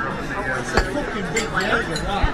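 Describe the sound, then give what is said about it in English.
Glasses of Jaeger shots clink together in a quick toast, a couple of sharp bright chimes, set against a busy murmur of overlapping voices and chatter. “Cheers.”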